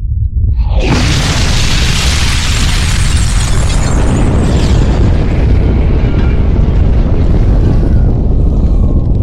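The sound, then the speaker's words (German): A warhead detonates seven kilometres above a city: a massive explosion erupts after a brief hush, swelling into a loud, sustained roar and deep rumble that rolls on for several seconds like a powerful blast wave. “Der erste Sprengkopf ist detoniert. Sieben Kilometer über der Stadt.”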